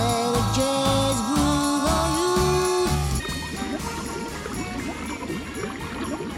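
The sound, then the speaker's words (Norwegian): A steady musical passage from a 1965 song played on Radio Nova gives way to thick, continuous bubbling and gurgling, like a boiling cauldron, with the music still carrying underneath at moderate loudness. “det eh, bobler og koker i bakgrunnen,”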